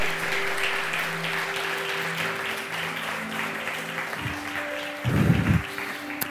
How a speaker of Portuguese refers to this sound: Aleluia, aplauda ele bem forte, aleluia, aleluia, aleluia, aleluia.